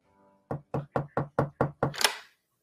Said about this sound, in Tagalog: Teka, last na. Susubukan ko ulit kumatok.